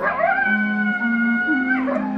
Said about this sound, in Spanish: Solo se oye el aullido del coyote.